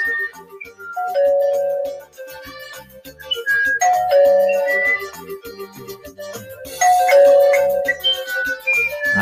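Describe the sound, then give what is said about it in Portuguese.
A doorbell chimes its ding-dong tune over and over, bright tones ringing out in a repeating pattern, with no voices in between, as someone rings at a house door and no one answers. “Toca essa campainha e o abençoado não atende de jeito nenhum.”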